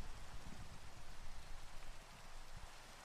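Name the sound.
rain falling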